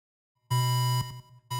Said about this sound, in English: It's the battery alarm for the engine oh, that ah, runs the man. podcast. It, it's about to run out of energy.